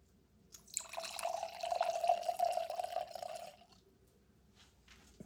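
Red wine from Trinchero is poured into a glass in one steady stream lasting about three seconds, a bright liquid gurgle that rises slightly as the glass fills, then stops and leaves quiet.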